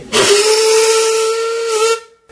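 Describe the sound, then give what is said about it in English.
A steam locomotive, newly arrived on a railway line in Romania and raising steam, blows its whistle in one sustained, steady tone for about two seconds, loud, wrapped in a bright rush of escaping steam hiss, then cuts off abruptly. “Um, we, we had a little steam up.”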